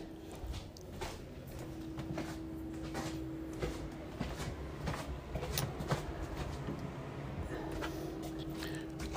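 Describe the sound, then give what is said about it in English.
A bedroom door is handled and closed, with scattered soft clicks, knocks and rustling over a steady low hum, with no one speaking. “closing closing uh, closing bedroom door so I don't wake people up.”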